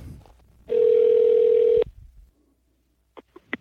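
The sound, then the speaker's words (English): A steady, loud telephone dial tone, heard while a show places a call to a listener in Napa, holds for about a second, then cuts off, followed by quiet and a few faint clicks of a phone line. “now we're going to call”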